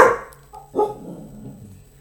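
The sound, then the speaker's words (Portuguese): A dog gives two sharp barks, one right at the start and another a moment later, moderately loud, with quiet in between and no talking. “O meu cão está revoltado.”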